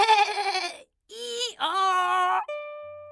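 A goat bleats three times in a row: a long wavering cry, a short one, then another drawn-out bleat. The cries are loud and high-pitched, and a thin steady tone lingers after them.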